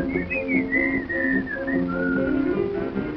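Someone whistles a wavering melody, the notes sliding and gliding in a continuous tune over a faint musical backing.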